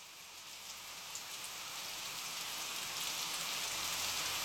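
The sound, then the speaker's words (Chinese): Steady rain falling, a soft, even hiss of countless drops that swells slightly louder toward the end. No one speaks. “下雨了吗？ 好像是。”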